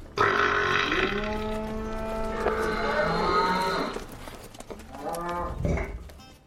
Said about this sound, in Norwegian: Det er en slags stor metallboks hvor kuene kan spise kraftfôr. Men grunnen til at de kaller det rapemaskinen, er at den måler hva som kommer ut når kuene raper.